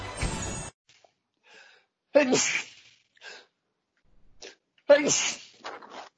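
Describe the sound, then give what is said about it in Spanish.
Two loud sneezes a few seconds apart, each a sharp explosive burst trailing off into breathy noise, with a short rush of noise at the start and quiet sniffs between. “Quedó, quedó grabado ahí todo mi estornudo.”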